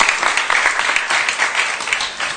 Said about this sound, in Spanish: Pues un aplauso para ellos también.